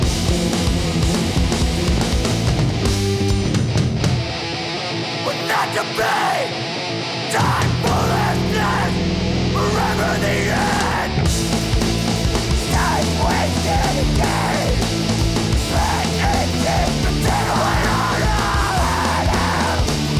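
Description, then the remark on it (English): A loud, dense rock song with harsh screamed vocals over driving distorted guitar and pounding drums, briefly thinning out early on before the full band crashes back in. “… by …, featuring my pal, …, on guitar and vocals”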